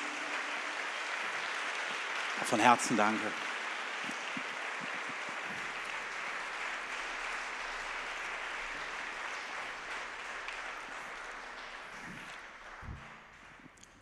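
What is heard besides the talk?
audience applause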